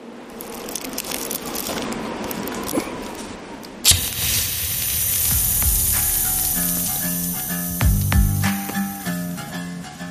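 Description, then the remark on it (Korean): After a few seconds of crackly rustling, a lighter for a cigarette snaps with one sharp click, and a steady flame-like hiss follows with a low droning hum beneath it. “찰칵 소리와 함께 라이터 불꽃이 묵직한 하늘로 치솟는다.”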